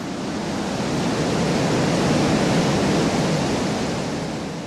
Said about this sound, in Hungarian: elképesztő mennyiségű víz zúdul le nagyon nagy sebességgel, úgyhogy örülök, hogy még sikerült oda eljutni.